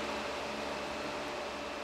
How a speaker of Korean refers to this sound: 아, 더워. 나는 말을 삼키듯 선풍기 풍향을 한 단계 높인다.